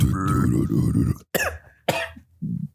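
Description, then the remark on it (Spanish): A loud coughing fit: a strained, raspy vocal sound gives way to two harsh, sharp coughs with short gasps between them, like someone choking. “Pero no se ahogue.”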